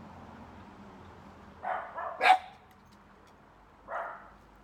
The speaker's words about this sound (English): Ooh, woof.